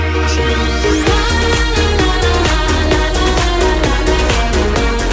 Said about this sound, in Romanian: Piesa se numește …. Este frate, … cu ….